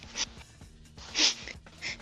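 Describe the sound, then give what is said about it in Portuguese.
A voice imitates a whistling snore: three breathy, hissing bursts over a low voiced hum, the middle one loudest, with no words spoken. “Aquele ronco assoviando.”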